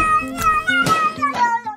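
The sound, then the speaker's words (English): Cat meows edited and pitched up and down into a short song melody, several sustained notes in quick succession, loud over a steady low backing tone, with no talking. “… by …, and it's been sung by a cat”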